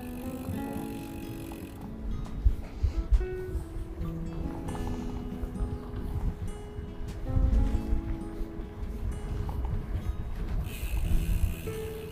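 A mountain bike rolls along with a steady mechanical ticking and rattling from the freewheel and gears, over a constant low rumble of tyres and wind, with no talking.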